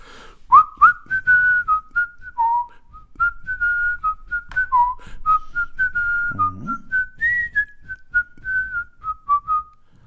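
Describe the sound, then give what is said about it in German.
A person whistles a tune, a steady sequence of clear sustained notes with small pitch bends and brief gaps over about ten seconds, with no talking. “jetzt will ich was pfeifen.”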